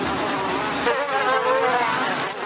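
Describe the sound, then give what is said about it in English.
A dense swarm of mass-produced mosquitoes in breeding cages, kept to lay eggs for release into the field, whines steadily and loudly, countless overlapping high-pitched buzzes wavering together in a continuous drone with no voices. “And then over here, we have the mass produced mosquitoes getting ready to give us the eggs to go out directly into the field.”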